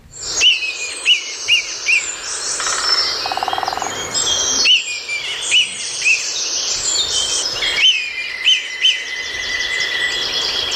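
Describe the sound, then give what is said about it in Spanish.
A red kite gives a series of short, thin, descending mewing whistles, repeated every second or so, over a dense chorus of birdsong, with no voices. “Percibimos ahí un maullido, que es como lo, cita mi querido Carlos de Ita, un maullido del Milano real.”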